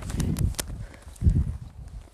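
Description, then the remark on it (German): Horse hooves thud and clop on the ground in a loose walking rhythm as horses are ridden in a row, a few sharp knocks, then a brief pause before more heavy muffled steps. “Und ich kann das verstehen, es ist sau schwer, manche Pferde zu steuern.”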